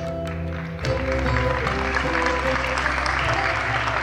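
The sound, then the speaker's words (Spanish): Warm, steady applause for Castro's message from a large crowd in the hall of a Non-Aligned Movement meeting swells in abruptly after a brief low hum and continues densely and evenly to the end. “El general Viñone, presente en el recinto, aplaudió calurosamente el mensaje de Castro.”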